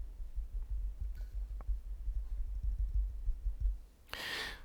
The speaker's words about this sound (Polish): Posłuchajmy jeszcze raz, będę dotykał ten mikrofon i w niego pukał.